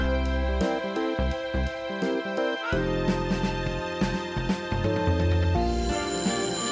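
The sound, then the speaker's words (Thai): A school bell rings as an electronic chime signaling time to go into class, playing a short melody of bright, ringing tones in steady succession. It is clear and fairly loud, with no voices. “เอ๊ะเสียงออดดังแล้ว อุ้ย ต้องไปเข้าเรียนแล้วล่ะค่ะ”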